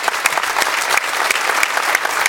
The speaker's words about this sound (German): in Frankfurt Applaus und es gibt hier Applaus ähm, für das, was Dario Minden da gesagt hat.